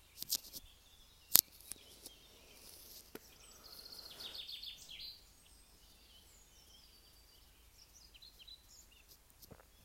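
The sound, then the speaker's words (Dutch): Faint birdsong drifts in the background through a quiet outdoor space, with a few soft chirps clustering midway and scattered light clicks and taps around them. No one speaks. “Je hoort de vogels op de achtergrond.”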